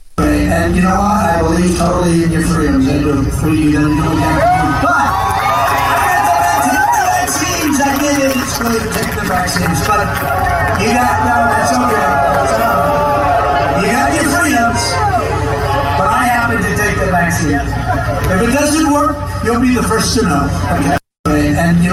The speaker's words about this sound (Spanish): Ah, e-, el video está horrible, pero el audio pues nos va a dejar saber eh, no totalmente tampoco, porque ahora vamos a escuchar lo que está pasando en la audiencia, ¿no?